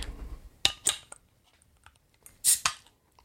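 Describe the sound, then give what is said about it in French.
A bottle opener works at the non-twist-off cap of a beer from the Guinness group: two sharp metallic clicks, a pause, then a louder hissing crack as the cap pops off, followed by a final click. No one speaks. “Là, ce coup-ci, tu as besoin de décapsuleur.”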